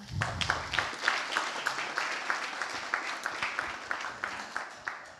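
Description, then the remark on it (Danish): An audience claps steadily together in a regular rhythm during a church service as a person is welcomed up, a dense run of sharp, bright claps at a moderate level, with a low rumble at the very start and no talking over it. “Bare fortsæt med at klappe, venner.”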